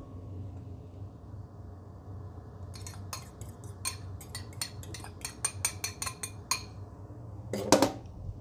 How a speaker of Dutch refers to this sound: Zo. Even de eieren in een wat grotere kom.